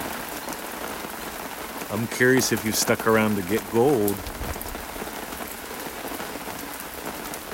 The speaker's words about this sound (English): Listen to that rain.